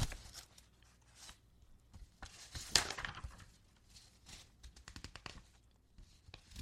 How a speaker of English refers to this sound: God, this mic is good, huh? Can you hear the paper?